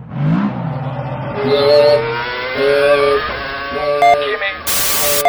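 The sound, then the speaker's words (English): A racing car engine revs loudly and repeatedly, its pitch climbing in sharp surges, with voices shouting underneath and a burst of harsh noise near the end. “Cars and shouting!”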